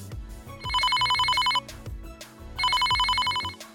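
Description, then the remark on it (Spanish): A telephone rings for an incoming listener call to a call-in show: two loud bursts of rapid, bright electronic trilling, each about a second long, separated by a short pause, over a low background hum. “Sigamos con la próxima llamada.”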